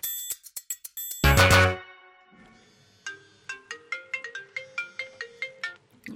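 A mobile phone ringtone plays loud: a quick run of bright chiming notes, a dense burst, then a steady repeating melodic pattern of pinging tones continuing to the end.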